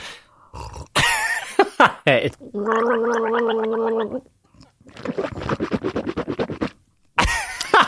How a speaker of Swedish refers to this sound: Och så tar jag en varm god kopp kaffe.